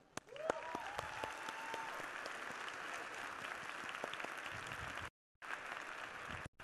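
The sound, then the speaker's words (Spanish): An audience of event attendees breaks into loud, sustained applause for themselves, a dense wash of many hands clapping with a few cheers and whistles rising above it, cutting out briefly near the end before resuming. “Así quiero que se den un fuerte, un fuerte aplauso.”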